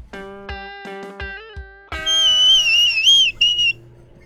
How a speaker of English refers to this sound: Okay, well, let's let's maybe take that whistle out of your mouth there